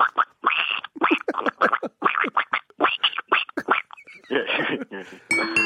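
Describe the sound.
A voice imitates a baby duck, not an adult duck, with a quick series of high, squeaky peeps: about a dozen short chirps in an uneven rhythm, fairly loud, followed by brief laughter and chatter.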